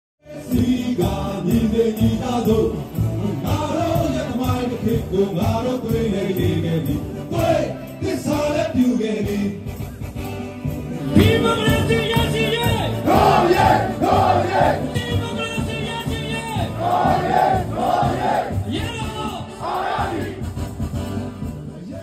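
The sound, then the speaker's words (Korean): About 300 Myanmar citizens living in Korea gather in a station square in Busan, South Korea, on 4 February to mark the Spring Revolution. They chant slogans together in loud, rhythmic unison, their voices rising and falling in repeated bursts that fill the space for the whole stretch. “네, 그래서 이를 기념하기 위해서 지난 2월 4일 같은 경우에는 한국에 거주 중인 미얀마 시민들 약 300여 명이 부상역 광장으로 모였습니다.”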